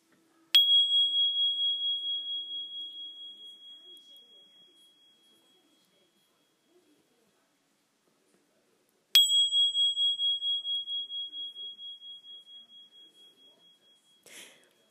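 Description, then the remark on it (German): A small singing bowl is struck twice, each strike ringing out in a clear, high, sustained tone that slowly fades with a gentle wavering pulse. No one speaks. “Und ich habe mir mal so eine kleine Klangschale gekauft. Die klingt so ähnlich wie diese Zimbel, wie dieses Instrument.”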